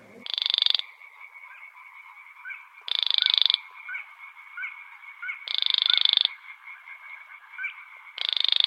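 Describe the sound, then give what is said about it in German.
A male grey-brown, black and white reed- and rush-dwelling animal gives loud, rasping creaking calls in a reed area, in four evenly spaced bursts, each under a second long, over a steady, softer background chorus of croaking and chirping calls. No one speaks. “Ja, wenn so ein Männchen knarrend äh, in irgendeinem Schilfgebiet entdeckt wird, dann müsste man das eigentlich sofort unter Schutz stellen.”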